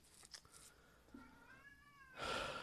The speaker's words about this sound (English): And James, my cat, is walking around yelling, hissing at at some of the other cats for no apparent reason whatsoever, except that they exist.